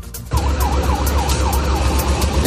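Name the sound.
ambulance sirens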